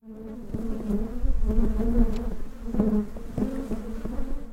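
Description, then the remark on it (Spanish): A dense, steady drone of many honey bees buzzing, with a sustained hum layered by overlapping wingbeats that swell and fade as individual bees pass. “Hoy haré un recorrido para aprender qué es la enjambrazón de las abejas, que ocurre con más frecuencia en julio y agosto.”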